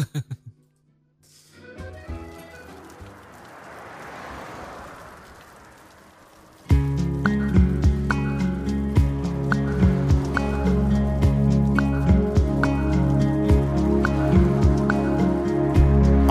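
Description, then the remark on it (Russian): A steady, soft hiss of light rain falling by day on a city square near Place Clichy under a charcoal sky, with a few faint tones at the start, before loud, rhythmic music abruptly takes over and buries it. “Правда, небольшой, дождливый, чувствуется, там идет день.”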